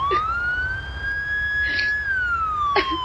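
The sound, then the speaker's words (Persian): An emergency vehicle siren from police cars and fire engines near a river wails continuously, its steady tone slowly rising and then easing down, fairly loud over a low traffic rumble with no one speaking. “نزدیک رودخونه ماشونه آتش اشتانی پلیس رو دیدم دلم ریخت”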